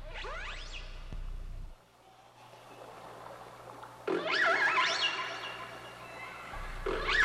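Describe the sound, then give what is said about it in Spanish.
Whale calls: high, sweeping squeals and whistles that rise and bend in pitch, coming in a few bursts over a steady low underwater rumble, with no one speaking. “Las ballenas emiten toda una variedad de sonidos. Escuchen.”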